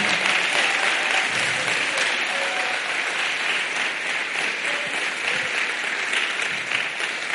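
crowd, audience applauding

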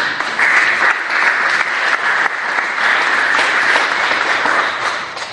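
crowd, audience applauding

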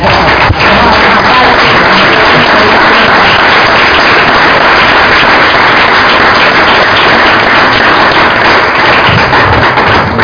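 crowd, audience applause

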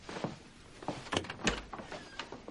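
household object, door opening

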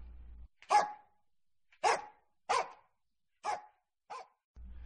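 animal, dog barking

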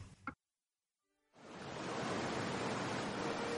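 nature, sea waves

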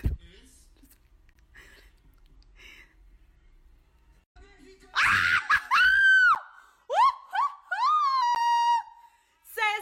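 human body sound, excited screaming

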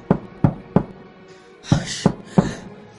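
impact, knocking on a door

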